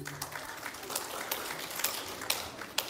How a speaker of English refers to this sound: Oh, you got applause. I never get applause. That's great.